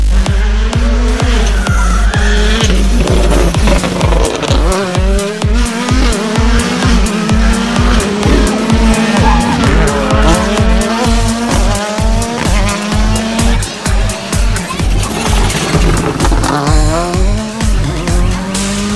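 A loud rally car engine revs hard and shifts through gears, its pitch rising and falling in waves, with bursts of tire squeal and skidding throughout and no voices.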